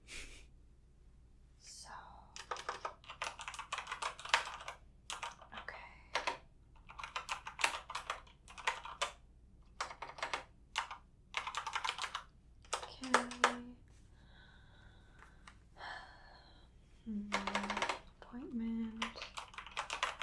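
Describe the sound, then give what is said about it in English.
Rapid computer keyboard typing in bursts of quick, light clicks, broken by short pauses, with a few soft breathy sounds and a brief low hum near the end. “So, just one moment, I'm just going to put some info into the computer, okay?”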